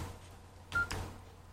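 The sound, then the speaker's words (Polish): A short electronic keypad beep sounds once, clear, as the C delete key is pressed on a mobile phone to delete a message, followed by a brief soft click or tap against a quiet background hum. “Teraz, jeśli chcemy usunąć wiadomość, wystarczy jak na samej wiadomości naciśniemy klawisz y, C, czyli klawisz kasowania.”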